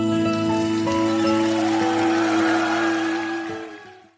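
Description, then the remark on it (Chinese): A steady, dense patter of applause runs under the last sustained notes of music, holding even before fading out at the very end. No one speaks. “好的，这掌声呢献给”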